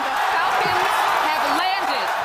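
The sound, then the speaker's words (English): A large crowd cheers loudly and without pause, a dense wash of many overlapping voices with a few higher whoops rising above the roar throughout, as two SpaceX rocket boosters from the launch of the red Tesla land back on Earth as planned, in February. “What you're hearing there are the cheering crowds back in February when two of the rocket boosters from the launch of that red Tesla landed back on Earth exactly as planned.”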